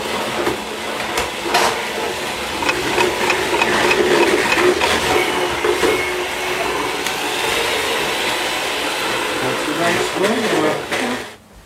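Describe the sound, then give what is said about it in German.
A small electric hand mixer whirs steadily for several seconds, beating a cake mixture until foamy, a continuous motor drone with faint rattling, cutting off abruptly at the end. Quiet talking can be heard under it. “So, dann müssen wir erstmal den Handmixer.”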